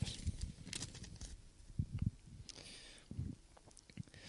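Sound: turning a page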